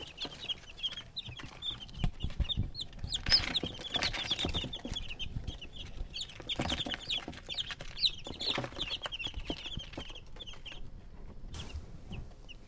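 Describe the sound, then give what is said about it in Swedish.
Hens cluck steadily in a cage, a busy overlapping chatter of short calls, with soft scratching and shuffling of their small feet as they run, underneath throughout. “Ja, men tänk alltså när man hör det här när de springer liksom och krafsar liksom ja. i, i buren.”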